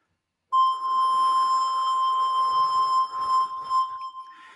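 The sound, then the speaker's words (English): A steady, pure electronic tone generated live in an iPhone app, blown into at the bottom of the phone with breathy air noise underneath, pitch set with on-screen buttons, holding for about four seconds after a short silence, its vibrato wavering as the phone is tilted from flat to vertical. “And that changes the amount of vibrato that's applied to the sound, which is actually generated live in the app.”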